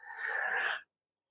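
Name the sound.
cough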